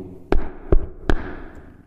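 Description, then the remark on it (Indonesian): A man knocks three firm times on the wooden door of a family's house, evenly spaced about a third of a second apart, fairly loud, each with a short resonant thud and brief decay. “Tiba-tiba di depan pintu ada seorang laki-laki. Wa lan mengetuk sapa rajul alaihim ing atase ayal keluarga itu al baba ing pintu.”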